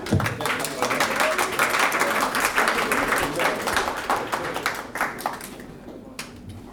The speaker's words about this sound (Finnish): Annetaan aplodit heille.